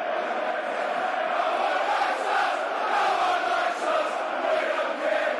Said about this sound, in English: He just scored a beautiful goal. One each, 40 minutes. Crowd in full voice.